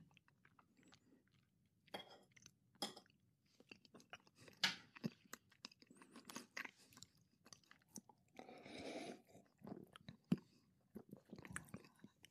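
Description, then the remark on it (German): Wet chewing of a small piece of banana, spread around the mouth before being swallowed with a sip of beer, with irregular smacking and squelching bursts, fairly quiet and steady over several seconds, with faint clinks in the background and no talking. “Nimmst es im Mund, tust es dir im, im Mund schön verteilen und noch nicht runterschlucken, dann einen Schluck Bier mit dem Bier zusammen runterschlucken.”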